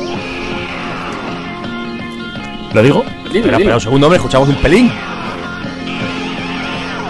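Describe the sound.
A rock band recording plays steadily in the background at moderate volume, while a man's voice breaks in loudly over it for a couple of seconds partway through.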